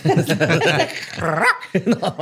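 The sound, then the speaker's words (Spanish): A person vocally imitates an animal at night, growling to scare off a presumed animal, producing a quick series of loud, dog-like growls and yelps with rising and falling pitch, with no other sound around them. “Una noche, para ahuyentar al presunto animal, … comenzó a gruñirle.”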